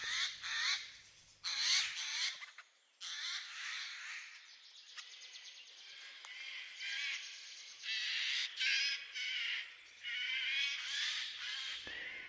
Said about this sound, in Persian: جیجاغ رو توی جنگل های هیرکانی و به خصوص زاگرس داریمش و بسیار زیبا و خیلی پرسر صداست